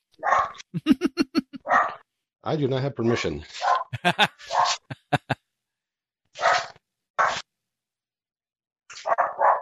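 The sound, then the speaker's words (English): A small dachshund barks in a series of sharp yaps, the bursts coming in quick clusters with short pauses, while people talk and one laughs. “That's like dog. a wiener dog, right?”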